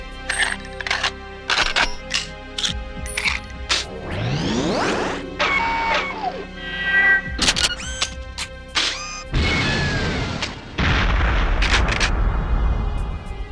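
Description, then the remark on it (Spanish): Sharp synthetic gunshots from a video game weapon fire in quick bursts, broken by metallic mechanical reloading clicks and a rising whir, then heavier blasts and a loud sustained rumble near the end, with no voices. “Y la carga tiene una animación. Y tiene un sonido. Y tiene un clic.”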